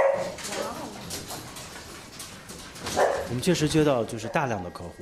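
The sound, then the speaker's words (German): A cloned puppy at a pet-cloning company on the outskirts of Beijing, China, yips and whimpers as it jumps up at a man's leg, a run of short, high-pitched barks and whines that grow louder toward the end, with muffled voices faintly behind. “An seinem Bein springt ein geklonter Hundewelpe hoch.”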